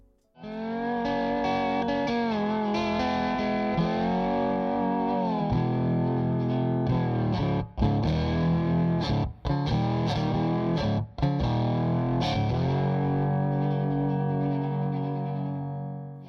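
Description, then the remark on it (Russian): A slide guitar, an early electric guitar nicknamed the Frying Pan, played with a glass or metal slide worn on the finger, plays a bluesy phrase, its sustained notes gliding smoothly between pitches with a slightly distorted, echoing tone. It plays loud, broken by a few brief pauses. “Играли на такой гитаре при помощи слайда, специальной насадки на палец из стекла или металла. Звук получался довольно интересный, в блюзовом стиле.”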